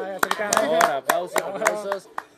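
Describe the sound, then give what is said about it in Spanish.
Scattered, irregular hand claps applauding the men of the combi as national heroes, about eight sharp slaps over two seconds, sounding over a continuous voiced vocal sound like talking or laughter. “Y pues ahora sí que bravo estos señores, bravo estos señores de la combi, los héroes nacionales aplauso, por ese día.”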